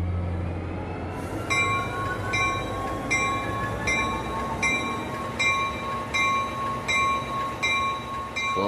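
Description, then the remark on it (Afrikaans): A train rolls into a station with a heavy, steady rumble, a high sustained squeal from the wheels or brakes, and a regular clacking about once a second, without voices. “Trein is al amper op pad.”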